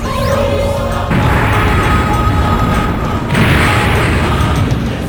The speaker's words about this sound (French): le sort de Yota a créé un trou noir qui ça à tout avalé sur son passage